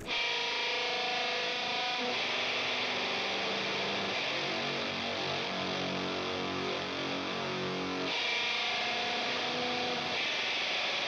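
Heavily distorted, loud alternative metal rock with dense, saturated guitar noise and pounding low end, a shifting melodic line in the middle section, continuous throughout with no talking.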